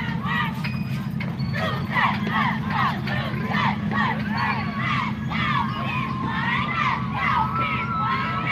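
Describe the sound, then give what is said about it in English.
A crowd at the annual Christmas parade in Center Point, Alabama, on Alabama State Highway 75 cheers and shouts steadily throughout, many overlapping voices, including high-pitched children's yells, rising and falling in a loud, continuous wash of excitement. “a nice sized crowd that's coming up here. Let's check out their reaction.”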